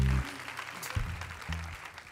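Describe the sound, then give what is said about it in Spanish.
An audience applauds the Lord steadily during a sermon, a dense wash of clapping throughout, with low sustained tones and a voice briefly sounding underneath. “Give a louder applause to the Lord.”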